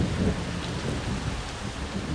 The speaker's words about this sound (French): Il semblait ne pas se rendre compte du vent qui hurlait et de la pluie qui tombait en trombe.